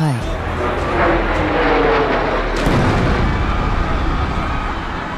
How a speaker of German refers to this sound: Ein zweites Flugzeug zerstört den südlichen Turm.